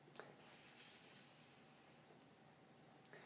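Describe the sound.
A person makes a long, sharp snake-like hiss through their teeth, sustained for under two seconds, then trails off into quiet.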